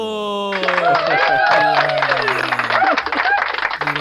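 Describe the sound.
Quick, dense hand clapping from a small group starts after a brief pause and carries on steadily, close and fairly loud, with voices calling out and talking over it.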